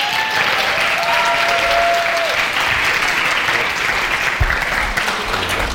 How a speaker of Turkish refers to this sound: Şimdi ben ismini söyleyeceğim. Siz böyle bağıra çağıra alkışlayacaksınız çünkü çok seviyorsunuz biliyorum. Mert Fırat bizlerle beraber.